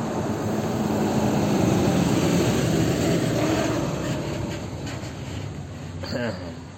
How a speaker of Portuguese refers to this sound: Calma lá, deixa o ônibus passar.